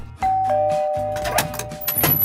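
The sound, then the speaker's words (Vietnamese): A doorbell chimes with sustained ringing tones, fairly loud, followed by a second brighter ding as the tones overlap and fade over a couple of seconds; the doorbell is pressed to welcome a visiting guest couple. “tu cô nhấn tiếng chuông cửa quen thuộc để có thể là chào đón”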